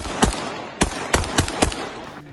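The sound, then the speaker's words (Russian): Five sharp gunshots from small arms fired from the ground at a kamikaze drone ring out at uneven intervals, a couple in quick succession, over a steady low background hum. No one speaks. “Это беспилотник Камикадзе, и его пытаются сбить с земли стрелковым оружием.”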